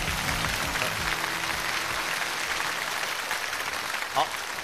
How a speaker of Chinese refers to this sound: 谢谢。再一次热烈掌声送给俞敏洪先生。